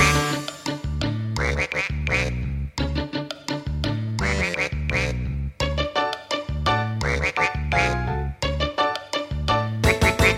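Rhythmic duck quacks, likely voiced imitations rather than real birds, repeat in short bursts over a bouncy, steady musical backing that stays loud throughout, in a Thai song about ducks bathing in a canal.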